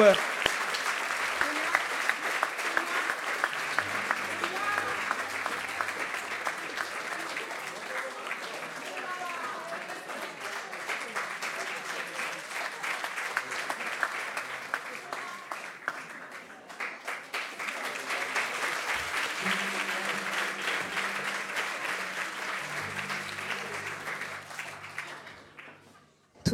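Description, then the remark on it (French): Sustained applause from a large audience for the Adama committee as it is invited onto the stage, lasting nearly half a minute, dense and steady, dipping briefly before swelling again, with faint voices beneath. “Euh, je ne pense pas s'ils peuvent tous monter, mais il faut vraiment, vraiment, vraiment, vraiment les applaudir.”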